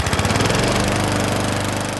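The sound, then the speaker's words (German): A band-themed ride-on lawn mower with a Briggs & Stratton engine runs loud, its steady rattling drone pulsing rapidly for a couple of seconds with no talking over it. “jetzt prescht Mickey D, ehemals … und jetzt … Drummer vor und hat ernsthaft einen … Rasenmäher entworfen”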